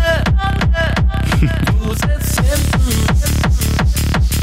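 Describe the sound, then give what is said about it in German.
A loud 2023 re-recorded version of a German pop song plays, with a steady, punchy drum beat driving every half-second, bright layered instruments and a melodic sung German vocal line riding on top throughout. “Die Neufassung aus dem Jahre 2023 von … klingt dann so”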